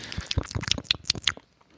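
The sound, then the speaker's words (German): Wet, smacking chewing sounds right up against the microphone, a quick irregular series of moist clicks and squelches for over a second, then it trails off into quiet. “Ja, das ist natürlich das geilste Geräusch, was man haben will, schmatzen.”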